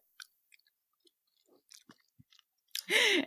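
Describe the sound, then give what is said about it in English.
Soft, sticky chewing of blue raspberry Jolly Rancher gummy candy: scattered wet mouth clicks and squelches over a few seconds, then a louder, breathy burst of sound at the very end. “I knew I knew that the Jolly Rancher like gummies would be a, it would be a little hard to hear, but you got it.”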